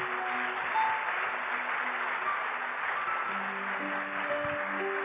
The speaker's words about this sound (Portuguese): Vamos aplaudi-lo bem forte.